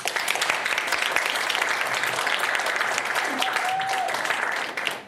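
Steady, dense applause from an audience fills the whole clip at an even loudness, a continuous wash of many hands clapping that tapers off right at the end.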